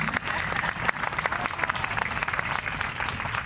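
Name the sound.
applause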